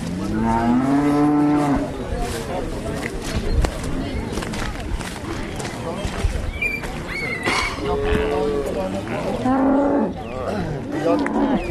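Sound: cow mooing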